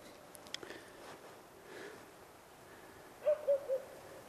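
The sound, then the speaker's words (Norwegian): A sheepdog, likely Kari Kirkevold's, barks three times in quick, even succession at people it sees on Sverrestien, sounding muffled against a quiet outdoor background with no one talking. “Ja, nå hører vi hunden gjøre det òg. Han ser at det er folk her. Så, eh, så dette er sikkert sauehunden til Kari Kirkevold, ja.”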